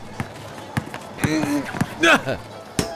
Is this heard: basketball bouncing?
yes